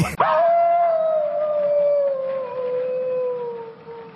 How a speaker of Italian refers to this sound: sentono ululare sì? il lupo ulula